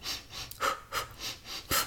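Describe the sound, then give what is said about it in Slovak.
A person imitates heavy, rhythmic breathing, quick panting inhales and exhales repeating about six times in under two seconds, fairly loud, like someone out of breath while running. “Dobre, ale to dýchanie to tiež je strašne subjektívne, lebo ja napríklad idem a idem, že”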